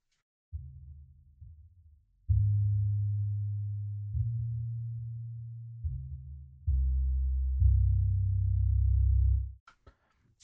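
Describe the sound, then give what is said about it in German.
A deep, rumbling synthesizer tone from a 'Rumble' preset for low sounds plays a sequence of sustained low notes, each a couple of seconds long, stepping between pitches before cutting off, with no talking. “Und zum Schluss haben wir sogar noch Rumble.”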